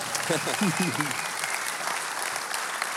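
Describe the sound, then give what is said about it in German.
A crowd at ICF applauds steadily for the whole stretch as a guest speaker is welcomed onto the stage. The clapping forms a dense wash, while a voice speaks briefly over it near the start. “Nochmal einen Applaus für Dankeschön.”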